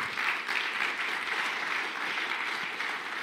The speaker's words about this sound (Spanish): dele un fuerte aplauso al Señor.